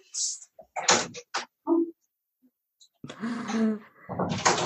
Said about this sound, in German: Ich, ja, ähm, ich lasse meinen Hund kurz rein, der bellt mir hier vor der Tür. Ja, ja, der darf rein.